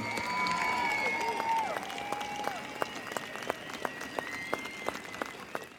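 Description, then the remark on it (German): A large demonstration crowd fills the square and streets at the IKM in Moers on 27 January, Holocaust Remembrance Day. It claps steadily, dense applause at first thinning into scattered individual claps, with a murmur of voices and a faint whistle-like tone threading through the background. “Inzwischen hatte sich der Platz und die Straßen am IKM gefüllt mit einer großen Menschenmenge.”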